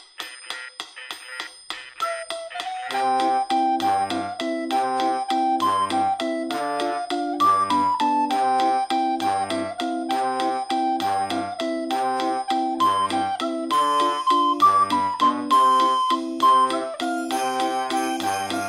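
The instrumental intro of a rock band's song: a bright, tinkling bell-like melody plays over steady, repeating low bass notes, building gradually at a fairly loud, even level with no singing or talking.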